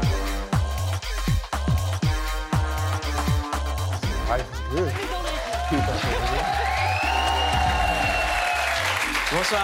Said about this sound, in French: Euh, vous regardez Click avec euh, des gens qui applaudissent pas du tout en rythme.